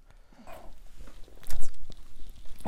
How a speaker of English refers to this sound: I swallowed that wrong.